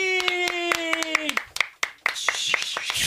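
A burst of applause with sharp, rapid hand claps over a bright sustained tone that fades out after a second or so, followed by lively crowd noise and continued clapping.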